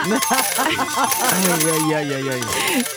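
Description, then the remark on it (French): Coins dropping and clinking, with bright metallic chinks scattered throughout, heard over a sustained tonal hum that slides slowly downward before fading near the end. “C'est au bloc, au moment de l'opération, que les médecins ont découvert ce que ce patient avait avalé 1894 pièces de monnaie.”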